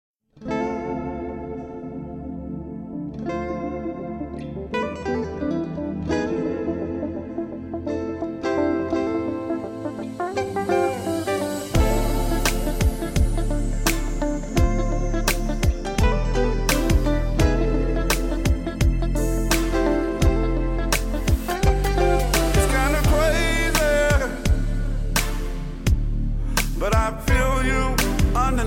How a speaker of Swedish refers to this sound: Um, i alla fall, nu har kommit ut med en låt i augusti, alltså bara för några veckor sedan kom det ut med en låt